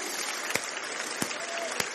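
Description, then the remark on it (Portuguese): An audience applauds Jesus in a steady, dense wash of clapping, with a few sharper, louder claps standing out over the crowd. No one speaks. “Vamos aplaudi-lo, ele é maravilhoso.”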